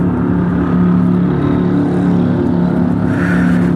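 A Harley motorcycle engine idles and runs at low revs as the bike goes little more than 5 km per hour, a steady, loud, throaty rumble with a lumpy rhythmic pulse, holding without much change for the whole stretch.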